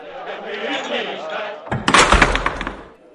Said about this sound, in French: La porte s'ouvre à toute volée.